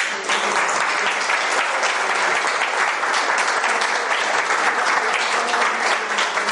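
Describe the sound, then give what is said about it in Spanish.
An audience breaks into the first applause of the afternoon, a dense wash of many hands clapping at an even loudness for several seconds, with no one speaking over it. “a la que pido por favor el primer aplauso de la tarde.”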